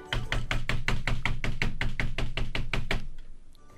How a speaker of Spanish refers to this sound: El otro día me puse a tocar la puerta en China. Y fui caminando y toqué la puerta y dije...